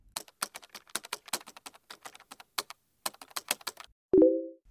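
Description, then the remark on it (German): Rapid, irregular clacking of keys on a computer keyboard, crisp, with brief pauses between bursts of typing, ending in a short electronic beep. “Genau, der ist es, der Computer.”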